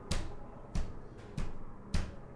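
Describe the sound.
Four firm, evenly spaced knocks on a wooden table, moderately loud, tapped out in a slow steady rhythm imitating the sure footsteps of a father coming in after putting the key in the door.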